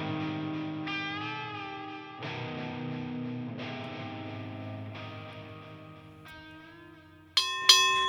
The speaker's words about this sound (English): There it is. There's the bell to round number six of fight number five, Pacific Coast Boxing. Here we go, folks.